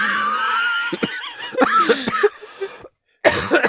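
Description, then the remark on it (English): A fairly loud bout of coughing from a lung condition aggravated by COVID: several rough, breathy coughs in quick irregular bursts, a brief pause of silence, then more coughing, with a hint of laughter mixed in. “Um, I am coughing.”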